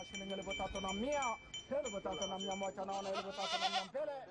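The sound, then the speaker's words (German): Several goats bleat loudly and repeatedly at a goat auction in Kenya, their wavering cries overlapping amid a busy outdoor crowd, with a steady high-pitched tone running underneath. “Die Kamelführer haben erstmal frei und ersteigern auf einer Ziegenauktion ein Tier fürs Abendessen.”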